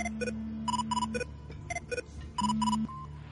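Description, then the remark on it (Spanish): A mobile phone rings in a hangar with an incoming call, playing a melodic electronic ringtone of short bright tonal bursts repeating in a quick, bouncy pattern over a low steady hum. No one speaks. “En el hangar, el móvil suena.”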